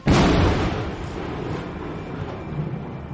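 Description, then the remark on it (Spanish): A sharp, loud thunderclap bursts at the start, then a heavy rolling rumble lingers and slowly fades over the following seconds, with no voices. “Oye, pues tantos relámpagos, ¿por dónde estamos pasando en la galaxia 33”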